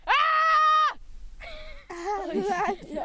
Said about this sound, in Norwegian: Det å hyl. Da hyler du.